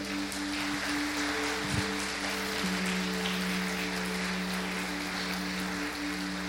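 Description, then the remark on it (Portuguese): An audience applauds Jesus steadily throughout, a dense, even wash of clapping with no break, while a low sustained keyboard chord hums beneath it. “Você acredita nisso? Aplauda Jesus.”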